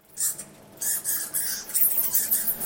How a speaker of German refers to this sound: hört man sie jetzt. Das sind tatsächlich Fledermaus-Sozialrufe.